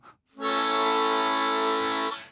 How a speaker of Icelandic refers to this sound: Þetta er þess að, þetta er diatónisk hljófari sem þýðir það að hún er einan ákveðna tóntegundar þannig að mm. þú mm. blæst í munnhörpuna þá